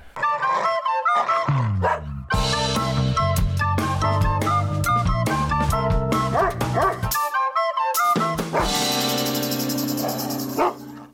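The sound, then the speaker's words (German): A short, loud musical segment jingle about a young-dog owner, built around a dog's barks and yips, which sound repeatedly over the bouncy tune and briefly drop out near the end before a bright finish. “Das ist unsere Rubrik Jakob, äh, nein, Lars, der Junghundehalter. Mhm. Und jedes Mal, wenn ich diesen Jingle spiele”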